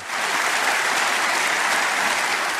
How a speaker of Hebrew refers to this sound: על הבמה לידה מחאו כפיים בהתרגשות בנימין נתניהו, דוד לוי, נתן שרנסקי, יולי אדלשטיין.